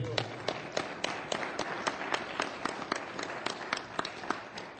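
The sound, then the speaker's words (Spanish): A crowd claps together, a dense wash of overlapping handclaps with sharper individual claps standing out in a steady rhythm, moderately loud and sustained throughout. “¿Por qué no le un aplauso a Fuerte?”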